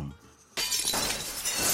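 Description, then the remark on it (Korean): A sudden loud crash of a treasured figurine dropped by the speaker's girlfriend and shattering on a hard floor, with bright fragments scattering and clinking for about a second afterward. Quiet beforehand, no voices. “그러다 어느 날 제가 정말 아끼던 피규어를 여자친구가 떨어뜨린 적이 있었는데요.”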